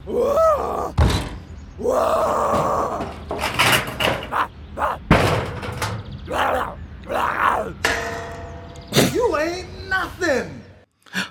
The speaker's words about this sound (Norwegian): Og så har jeg funnet et klipp da, eh, der man hører tydelig Det er noen som filmer The Rock som ødelegger porten sin. Ja. Så jeg har bare lyst til at vi skal høre på det. Hvordan høres det ut når The Rock er slem mot porten sin?